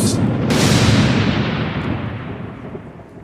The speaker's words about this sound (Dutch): Maar tijdens dit verhaal ontwikkelt zich een enorme storm op de achtergrond. Een storm die zo groot is